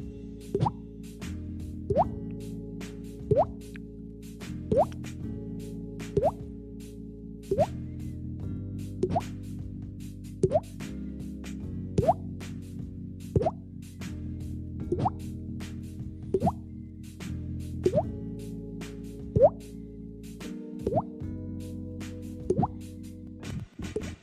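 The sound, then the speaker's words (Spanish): A person imitates water drops with their mouth: crisp, hollow plops repeat steadily, roughly every second and a half, over a low sustained musical hum, fairly loud throughout. “Yo puedo hacer ruido de gota de agua.”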